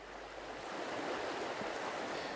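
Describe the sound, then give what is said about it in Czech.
Steady rushing of the Vltava river, heard from a walkway above the river at Vyšší Brod Monastery, a broad continuous hiss that swells slightly partway through and holds evenly, fairly loud with no voices. “Stojíme s převorem Vyšebrodského kláštera Justinem Berkou na ochozu nad řekou Vltavou.”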